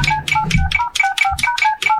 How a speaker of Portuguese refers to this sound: o telefone de um deles tocou.